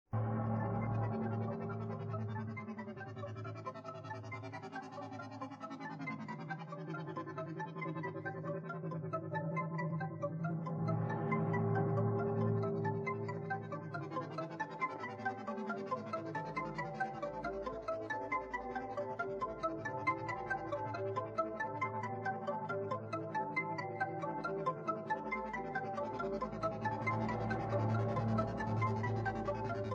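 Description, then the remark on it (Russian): A synth-driven electronic melody plays alone without talk, sustained tones over a pulsing low bass line, with a brooding, eerie mood: the opening theme of Romero's horror film Day of the Dead. “То, что я еще отметил для себя, это День мертвецов Ромеро. Это вступительная мелодия, вступительная сцена,”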